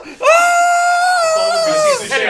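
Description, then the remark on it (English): A person lets out a single imitated scream, a loud, sustained high-pitched cry held for nearly two seconds before trailing off, with no other sounds, imitating Selkirk screaming as he is dragged out of his home. “They, they would drag Selkirk confused and screaming out of his home.”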